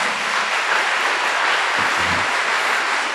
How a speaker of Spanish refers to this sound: Amén. Así sea. Démosle un fuerte aplauso al Señor por Él.